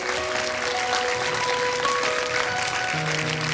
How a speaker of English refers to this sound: And again, we welcome all our guests and friends to the house of the Lord. Why don't we give them a round of applause?